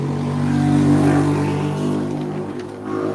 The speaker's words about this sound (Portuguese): Esse animal que passou de moto, por exemplo, a gente pode dar um tiro. Nossa, que filha da puta. É o entregador de pizza, gente.